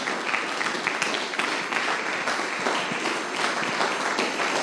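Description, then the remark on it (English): A church audience applauds steadily to give God a hand of praise during a sermon, many hands clapping at once in a dense, sustained wash of applause that holds at an even, fairly loud level throughout. “Give God a hand praise if you believe it in this place right now.”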